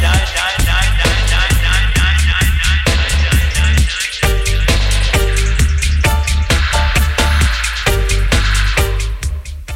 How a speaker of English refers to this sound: On se laisse le dub en fond pour faire la rubrique Info Concert.